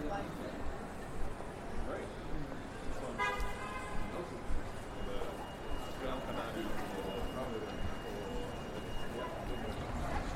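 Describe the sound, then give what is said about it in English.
Steady rumble of busy street traffic on Bishopsgate, heard from the end of Artillery Lane, fills the scene, with a single car horn toot ringing out briefly near the start and faint voices murmuring in the background. “You can already hear the traffic on Bishopsgate.”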